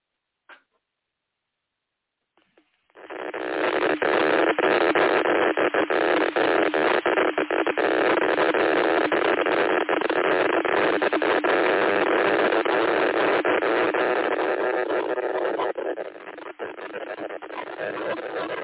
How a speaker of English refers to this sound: It sounds like an old Geiger counter. Yeah, yeah, yeah. I mean, it's just it's really it's it's it's really quite strange.